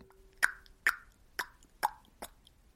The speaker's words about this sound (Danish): Det er lyden af en, der klikker med tungen. Sådan her.